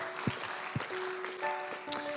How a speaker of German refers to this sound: Come on, ja, komm, wir geben Jesus einen Applaus. Er ist gut. Er ist gut. Danke, Jesus.